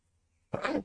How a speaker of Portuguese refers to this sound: E aí eu falo, perdão, acho que eu vou espirrar.